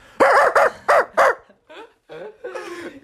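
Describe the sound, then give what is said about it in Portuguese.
A person imitates an aggressive dog with four quick, loud, harsh barks in a row, followed by a few quieter growling, yelping vocal sounds. “Tipo, eu vou imitar, ele faz, fazia uns barulhos tipo assim.”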